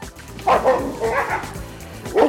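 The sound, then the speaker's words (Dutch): A wolf at Diergaarde Blijdorp zoo lets out a few short, dog-like barks and yips, fairly loud, with clear bursts near the start and end and rougher vocalizing in between. “De wolf die huilt in het bos. Maar de wolf is niet voor niets de stamhouder van de hond. En soms klinkt hij dus ook als een hond”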